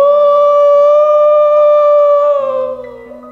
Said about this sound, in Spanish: Porque dice que este Gadareno aullaba por los montes, gemía. ¡ah! Y se escuchaba a lo lejos en la oscuridad de la noche. ¡ah!